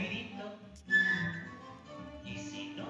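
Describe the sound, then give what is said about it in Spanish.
A short, clear whistled note rises briefly over a busy musical background with voices, lasting only a moment before the music carries on. “Pepito Grillo le dice que cuando estés en líos, pues le des un silbidito y, le ayudaría, ¿verdad?”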